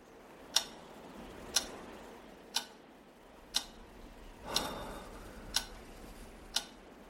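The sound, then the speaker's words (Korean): A wall clock's second hand ticks steadily, seven sharp clicks about one second apart, with no voices. One tick in the middle sounds slightly softer and more blurred. “초침 소리는 벽시계 앞에 매달린 틀 사진 속의 아버지와 기묘한 조화를 이루고 있었다.”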